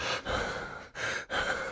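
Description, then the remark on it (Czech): Heavy, hissing breaths of a person struggling to breathe because of pressure, in a steady rhythm: three long airy pulses separated by brief pauses, sounding like Darth Vader, with no talking. “Tak to zní, jako kdyby si tady povídal a tady stal Darth Vader.”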